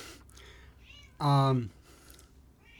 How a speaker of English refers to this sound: If you hear a little meowing in the back, we have Onyx visiting.